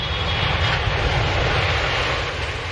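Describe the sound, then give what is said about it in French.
A steady, loud airplane engine drone with a deep low rumble and broad hiss, holding constant for a few seconds with no voices; the plane a 12-year-old LeBron James took on his first flight, to a tournament in Florida. “LeBron James a 12 ans quand il prend l'avion pour la première fois afin de disputer un tournoi en Floride.”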